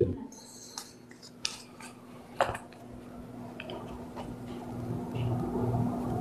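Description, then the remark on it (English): Crisp riffling and papery snaps of a deck of playing cards being shuffled, a few short bursts spread over several seconds above a low, steady background hum. “A red or black red, and shuffle.”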